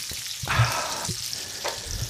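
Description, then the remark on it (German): Food sizzles and crackles steadily in a hot pan, with a few louder bursts of spattering and faint scraping, without any voices; small chopped pieces have just been thrown into the pan. “Jetzt habe ich schon welche in die Pfanne geschmissen.”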